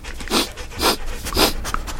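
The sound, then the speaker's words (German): The dog Hube sniffs and pants, using his nose to find a hidden teddy, with three breathy bursts at a steady rhythm, airy and rough, over a low background rumble. No one speaks. “Hube wird seine Nase benutzen er wird riechen und dann wird er den Teddy finden.”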